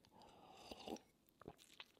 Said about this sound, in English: Okay, quick coffee coffee sip here